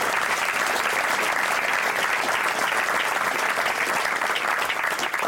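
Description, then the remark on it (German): Sustained audience applause welcoming a guest, a dense, even clatter of many hands clapping at once, steady and fairly loud throughout with no voices rising above it. “Hier ist Ihr Applaus.”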